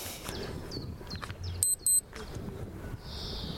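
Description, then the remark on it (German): Two short, high-pitched electronic beeps in quick succession, an hourly time signal marking 12 o'clock noon, stand out clearly over a low background hum, with a softer sustained high tone following a moment later. “Keine sprechende Uhr? Keine sprechende Uhr. Okay, 12 Uhr.”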